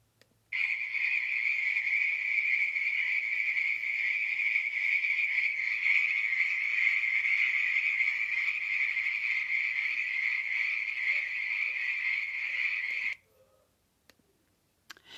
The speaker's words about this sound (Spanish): El hermano Bruno rezaba sus oraciones, pero podía escuchar a las ranas que parecían competir entre sí por la intensidad de su croar.